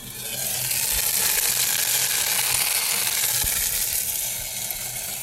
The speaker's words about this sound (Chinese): 我今天早上突然想吃饺子，我就煎几个饺子给自己吃。来听一听这个饺子的爆裂声